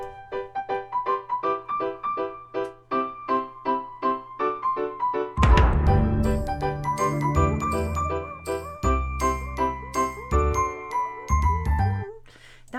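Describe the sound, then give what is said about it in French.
A short segment theme jingle: bright, tinkling notes bounce in a quick, steady rhythm, then a fuller, louder arrangement with bass kicks in and plays to a close. No one speaks. “avec ton petit thème parce qu'on va embarquer, parce qu'on a euh, bien du stock.”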